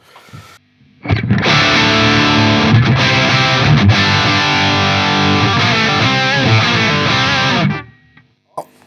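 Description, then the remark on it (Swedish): A distorted electric guitar riff played through a JCM 800 amp, thick and crunchy with sustained chords and shifting notes for about seven seconds, then cutting off into silence. No talking. “Men ta den vi börjar med då, ta JCM 800.”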